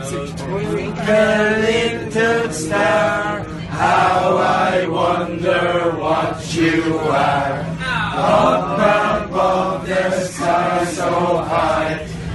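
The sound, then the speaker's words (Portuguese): A large crowd of Irish football fans sings Twinkle, Twinkle, Little Star as a lullaby to a baby, their many voices blending into a slow, steady, sustained melody that carries on without a break. “Vamos ouvir a criança sendo ninada pela torcida irlandesa.”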